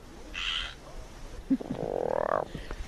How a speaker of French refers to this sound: La pluie commence à tomber et du coup les rainettes sortent et surtout elles chantent.